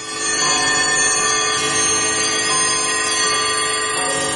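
Bells ring out continuously in a dense, shimmering peal, their overlapping metallic tones sustained at a steady, fairly loud level for the whole stretch with no voices present.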